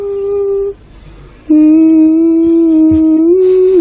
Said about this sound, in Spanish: la banda sonora de, ¿Quién puede matar a un niño? Ah, vale, no la reconocía.